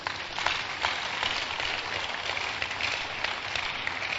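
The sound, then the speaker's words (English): An audience clapping for Jesus, steadily, a dense wash of many hands applauding at once with a crisp, even texture that holds the same moderate loudness throughout, no voices standing out. “Clap for Jesus.”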